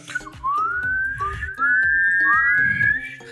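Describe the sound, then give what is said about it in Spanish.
Someone whistles impatiently through their lips in a string of rising, sliding notes, three or four swooping glides in a row, fairly loud, over a busy low rhythmic background. “Ser mexicano también es que cuando alguien se tarda, empezar a chiflar.”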